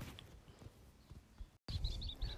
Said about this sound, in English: Listen to that. Can you hear it? There's birds. There's a cow mooing somewhere. Sometimes you can hear some sheep. I'm on the island of South Uist in the Outer Hebrides, and it's so peaceful and tranquil here.